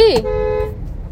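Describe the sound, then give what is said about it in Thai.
A single car horn blast sounds loud, starting with a slight pitch dip before holding steady for well under a second, then cutting off into low background noise, as one car cuts in front of another in traffic. “ก็คือมีการปาดหน้ากันเกิดขึ้นนางอาจจะไม่รู้ว่าฉันกำลังจะเข้ามาเพราะฉันเองก็ไม่ได้เปิดไฟเลี้ยว”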